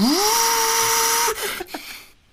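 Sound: vacuum cleaner running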